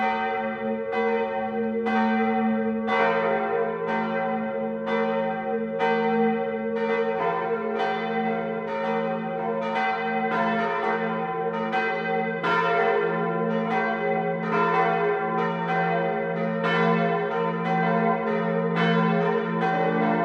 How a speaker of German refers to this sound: Auch dann erklingen überall im Land lautstark die Kirchenglocken, um dies zu verkünden.